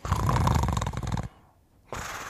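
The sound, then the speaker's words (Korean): A younger cousin asleep at home gives a loud, rough, gorilla-like snore that rumbles for over a second with a guttural, throaty rasp, then breaks into a brief near-silent pause before another harsh snoring breath starts up. “고릴라 소리를 내며 잡니다.”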